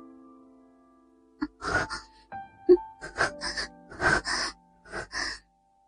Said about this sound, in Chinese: 我不由轻轻喘息着。